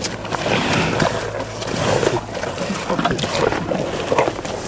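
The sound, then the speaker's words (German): Close-up, steady crunching and wet chewing of buffalo eating beetroot, recorded up close with a microphone, a dense run of grinding bites with faint rumbling in the background. “Man hört es richtig, wie die rote Beete schmeckt. Wir versuchen die Büffel mal ganz nah mit Mikrofon einzufangen.”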